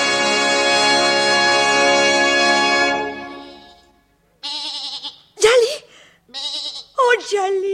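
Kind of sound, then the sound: animal, goat bleating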